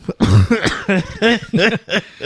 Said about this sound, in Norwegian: Unnskyld, unnskyld at jeg hosta litt. Det altså. er veldig uproft av meg.